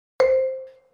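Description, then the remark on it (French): A single bright chime rings out with a sharp strike and a clear sustained tone that slowly fades, a timer going off with nothing else around it. “Ah non, c'est vous qui faites du bruit, je croyais que c'était mon téléphone.”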